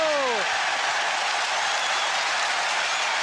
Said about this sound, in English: He salutes the crowd. He gets applause from his manager and the bench and from the Tottenham fans as well.